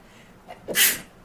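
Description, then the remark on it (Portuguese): A single sharp sneeze caused by allergies: a brief breathy intake followed by an explosive, hissy burst that fades quickly, with no talking around it. “Saúde. Ai, ai, gente muita alergia.”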